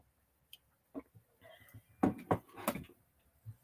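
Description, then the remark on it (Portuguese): Someone quietly sips coffee from a cup, with a few soft clinks and taps of the cup before a short cluster of slurping sips; no one speaks. “Um golinho de café.”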